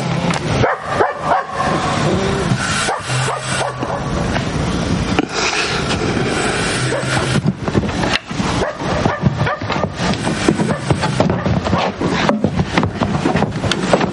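A dog running between the railway tracks at night barks repeatedly in sharp, irregular bursts, with a few whimpers, over the steady rumble and clatter of a train on the tracks.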